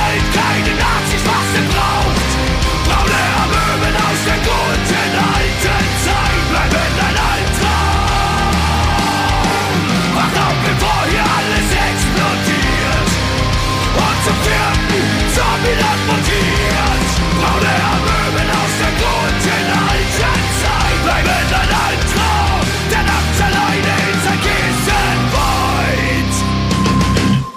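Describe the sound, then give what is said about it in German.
A loud, dense rock track plays continuously with heavy distorted guitars, driving drums and steady pounding rhythm, sustained at full volume throughout with no talking over it. “einen kleinen ähm, Ausschnitt eines Anti-Nazi-Songs von der Band …”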